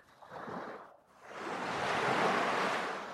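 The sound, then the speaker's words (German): Ocean waves surge onto a shore, one swell washing in, briefly receding, then a larger, broader wave rushing up in a steady roar. Moderately loud, with no voices. “lass dich nochmal aufladen von der Sonne, von dem Meer, von den Wellen.”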